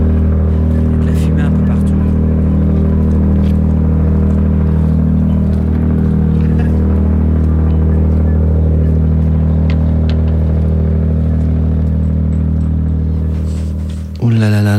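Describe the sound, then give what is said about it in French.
Boat repair work with welding tools at the port of La Poule, people busy around the boat: a loud, steady electrical hum of machinery runs throughout, with scattered metallic clatter and knocks on top, ending in a sudden burst near the close. “Et euh, quand on s'approche, on se rend compte qu'il s'agit probablement de réparation de bateau, et faire à souder, des gens qui s'affairent autour du bateau.”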